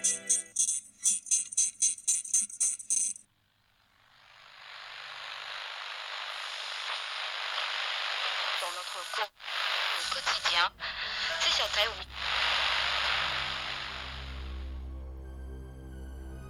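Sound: radio static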